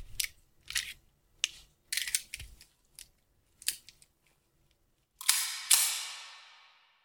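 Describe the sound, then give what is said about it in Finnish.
Metallic clicks and clacks of a pistol being loaded and readied at a practical (IPSC) shooting session in Finland, a quick irregular series, followed by two louder, sharper snaps that ring out and fade slowly. No one speaks. “Load and make ready.”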